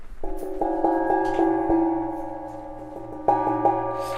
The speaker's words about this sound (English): There's a richness in these old cymbals. I have yeah. old chimes and things like this. That's that's Chinese. This is Japanese.